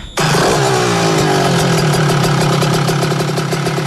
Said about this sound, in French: Euh, on a 8 kW de production, ça fait à peu près 10 chevaux thermiques, c'est à peu près comme si vous aviez euh, un 125 cm3. Vous voyez le bruit que ça fait d'habitude Un petit comparatif sonore.